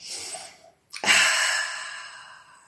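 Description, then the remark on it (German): During a guided breathing exercise, one deep, airy breath is drawn in, followed by a brief pause, then a long, audible exhale that starts strong and gradually fades. No talking. “Nochmal tief atmen, einatmen.”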